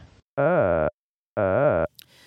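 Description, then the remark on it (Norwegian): Two short, buzzy synthetic tones, each about half a second long and separated by a pause, glide up and down in pitch, reproducing the speech melodies of two pronunciations of the Norwegian word "endene" with the speech sounds removed by a program; both have a high tone, coming later in the word the second time. “Og da kan vi høre først to ord, som jeg sier, og så de, det samme opptaket, der vi bare hører de to melodiene.”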